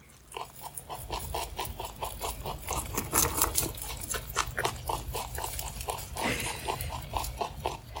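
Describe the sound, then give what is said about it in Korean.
Three pet rabbits chewing carrots, cucumber and dry grass: a steady, rapid run of crisp crunching clicks that continues without pause, the animals' chewing overlapping, with no voices. “그들이 당근을 씹는 소리가 어찌나 경쾌한지 잠시 녹음해 봤는데 녹음이 잘 되었나 하며 들어보니 세 마리 토끼도 잠시 씹는 걸 멈추고 긴 귀를 쫑긋 하더라고요.”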